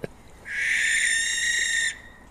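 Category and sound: bird, barn owl screech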